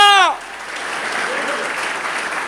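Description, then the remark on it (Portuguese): A crowd breaks into sustained applause, a dense wash of many hands clapping that follows the tail of a loud sung or shouted voice at the start. “Você que recebe essa palavra, deu uma linda salva de palmas ao aplauda Aplaudem fora.”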